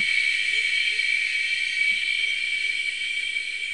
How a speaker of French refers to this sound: Alors c'est un cœur euh, de sept espèces de cigales enregistrées au Mexique, dans l'état de Veracruz.